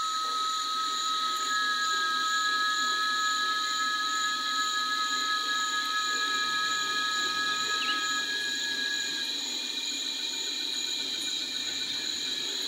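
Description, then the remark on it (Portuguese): Cicadas sing in a dense, unbroken outdoor chorus of steady high-pitched whining tones in the mountains in late afternoon as clouds gather before rain, with frogs and birds, a faint chirp or two mixed in and no talking. “Paramos um pouco para ouvir o canto das cigarras, dos sapos e pássaros.”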